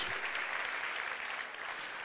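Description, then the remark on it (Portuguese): A church audience applauds the Lord steadily during a sermon, a dense wash of many hands clapping at once, sustained and even in loudness from start to finish with no voices standing out. “Você pode aplaudir o Senhor, porque é essa ideia que Neemias está trazendo aqui agora, nesse momento.”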